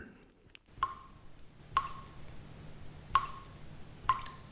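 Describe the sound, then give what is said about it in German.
Water drips from a faucet in four separate, evenly spaced plinks, each a short bright drop ringing out briefly against a quiet room hum, with no one speaking. “das beginnt schon mit dem tropfenden Wasserhahn.”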